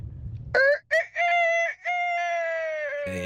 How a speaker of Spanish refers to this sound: un gallito, eh.